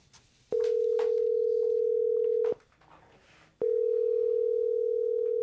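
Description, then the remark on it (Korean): A telephone ringback tone purrs loudly in two long, steady bursts separated by a pause of about a second, with only faint background noise between them, as a call is placed again and nobody picks up. “정희 씨는 다시 한번 유정 씨에게 전화를 걸어봅니다.”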